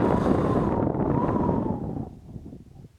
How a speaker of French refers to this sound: Dehors, le vent et la tempête continuent de plus belle et on entend de nouveau ces sortes de murmures.